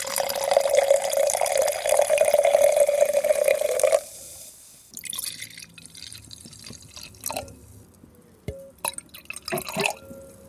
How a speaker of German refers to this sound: Es hat gesprudelt, aber in einem Glas, das sieht irgendwie aus wie Wein, riecht aber überhaupt nicht so. Also sowas Gelbes.